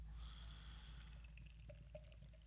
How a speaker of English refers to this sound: So here we go. First, we pour it into a glass.